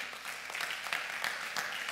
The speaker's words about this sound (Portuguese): Você pode dar um aplauso ao Senhor por isso?